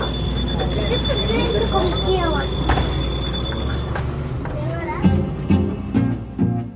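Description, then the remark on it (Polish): A city bus bound for the Staromiejska metro station pulls up: its engine rumbles loudly with a steady high electric whine, then the roar drops away after a few seconds, leaving quieter background voices and bumps. “Autobus podjechał, jedzie do metra Staromiejska”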